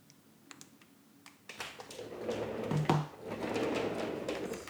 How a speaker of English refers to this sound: Actually, I'm checking something on my phone, and then I'm going to do the Rubik's Cube.